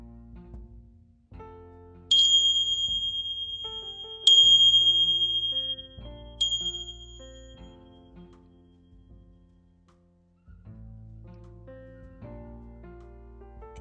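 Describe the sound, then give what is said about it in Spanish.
Three clear, bright bell strikes ring out about two seconds apart to start a meditation, each tone shimmering and slowly fading over a soft, steady instrumental background with no voices. “Y cuando suenen las campanas, te invito a que cierres lentamente tus ojos.”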